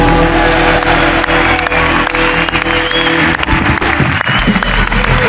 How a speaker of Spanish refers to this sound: Eh, vale. Un aplauso para Andrei Rublev.